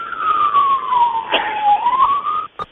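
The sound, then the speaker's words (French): An emergency vehicle siren wails steadily for about two and a half seconds, its pitch sliding slowly down and back up, fairly loud over a noisy background before cutting off abruptly. “0239, là, les sirènes, je vous entends pas du tout.”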